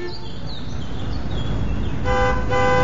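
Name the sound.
car horn honking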